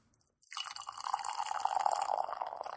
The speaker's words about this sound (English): For some reason. I don't know why. Actually, I kind of like the sound of beer being poured.